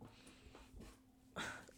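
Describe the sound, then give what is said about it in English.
A dog snorts and huffs a few times, then lets out a brief high-pitched whimper while pawing, with soft scuffling noises and a faint steady hum underneath. “move your paw. Oh my gosh. Wow, this dog, I tell you.”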